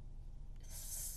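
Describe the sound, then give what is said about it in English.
Steady hiss of rain pouring outside, heard faintly through a low background rumble; the bright, spray-like wash swells and grows sharper about halfway through. No one speaks. “Also, it's like pouring rain outside, so if you hear some rain in the background, that's that's what it is.”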